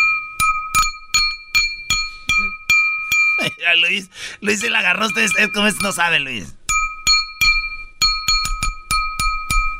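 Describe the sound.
A glass bottle is tapped again and again, giving bright ringing clinks in a quick, uneven rhythm. The tapping pauses while people talk and laugh, then starts up again.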